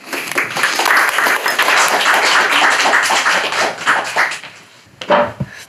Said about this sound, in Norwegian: ja, det er ikke noe annet å si enn uh, gi en applaus